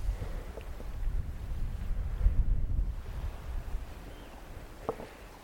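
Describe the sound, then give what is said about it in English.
Gentle waves lap steadily against a pebbly shingle shore at Cemlyn Bay, a soft rolling wash that swells and ebbs, with a breezy rumble underneath and a couple of faint clicks near the end. “You can hear the waves lapping on the shore.”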